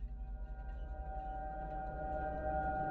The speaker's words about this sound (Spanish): Algunos minutos después, se sintieron aliviados al escuchar la sirena de la ambulancia aproximándose.